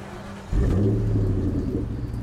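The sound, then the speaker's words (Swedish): After a brief quiet moment, a voice abruptly launches into a loud, throaty imitation of a revving car engine, a sustained low rumble that holds steady for nearly two seconds. “Åh, jävlar, Helvete vad det spritter i den.”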